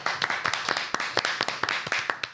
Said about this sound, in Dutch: Nou, eens even een eh, finale applaus